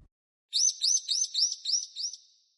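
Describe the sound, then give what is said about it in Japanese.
A small bird, the character Kotorin turned back into a small bird, chirps alone in a quick series of six bright, high-pitched notes, evenly spaced, with the last ones fading slightly. “コトリンが小鳥に戻った。呪いが解けたんだわ。”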